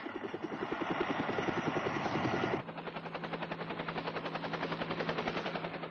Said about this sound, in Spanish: Poco a poco, paso a paso, batidos por los remolinos, bajo el fragor de los motores y bajo el trauma de las aspas de la nave, fuimos enviando todos nuestros pertrechos.